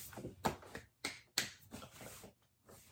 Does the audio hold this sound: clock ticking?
no